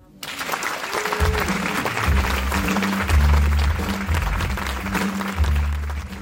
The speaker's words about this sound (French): Voilà, après ces applaudissements